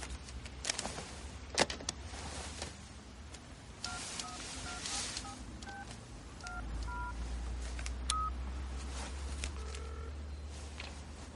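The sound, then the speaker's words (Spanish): A limousine's car phone is dialed for a long-distance call in a quick run of electronic keypad tones. Each beep is short and distinct against a low, steady engine hum, with a few clicks and handling noises. “Charlie sonríe desde el coche, eleva el cristal y mira el teléfono de la limusina.”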